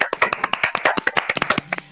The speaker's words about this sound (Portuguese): Palmas pros fãs. Palmas pros fãs.